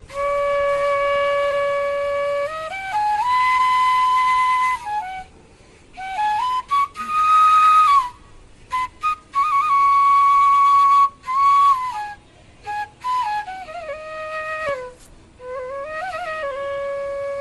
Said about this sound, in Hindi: customise करके बांसुरी बना दिया है यार डंडे को